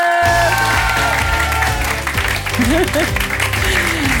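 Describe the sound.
Steady, loud audience applause fills the whole stretch, a dense wash of clapping with music playing underneath and a few voices or cheers rising briefly above it.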